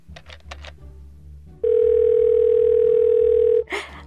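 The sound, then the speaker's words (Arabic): A steady telephone ringback tone holds a single unbroken pitch for about two seconds, loud and even, after a few quick clicks and taps, as a call is placed to share news of a booking, then cuts off abruptly as a brief rustle follows. “خليني دق وبشرها اني حجزت”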